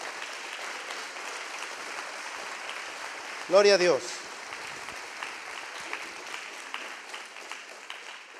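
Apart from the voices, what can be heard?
audience applauding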